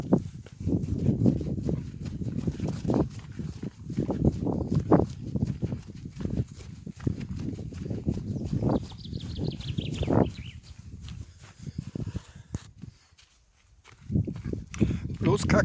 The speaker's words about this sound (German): Ich bin gerade auf dem Schöckel beim Gipfelkreuz und ich werde jetzt die Strecke hinunterlaufen. Der erste Teil in der Halt laufe ich barfuß und es macht richtig Spaß, hier auf dieser Wiese zu laufen.